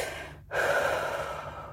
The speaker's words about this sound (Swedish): Gör ett sånt andetag bara.